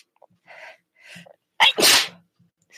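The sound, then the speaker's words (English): A single loud sneeze: a couple of soft sharp inhales build up, then an explosive burst with a brief breathy tail, followed by quiet. “excuse me. It's always something.”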